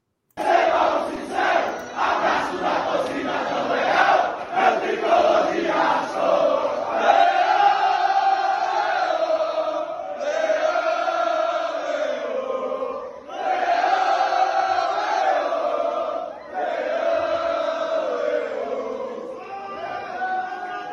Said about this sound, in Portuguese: É, colocar um vídeo aqui na tela do, da torcida no Murumbi, saindo do Murumbi, comemorando